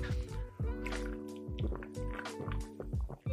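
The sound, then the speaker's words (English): Liquid Death sparkling water from an aluminum can glugs and drips in a quick series of wet, bubbly pulses, with a steady low hum underneath and no talking. “Legit, the sparkling water is one of my favorite. Check this out.”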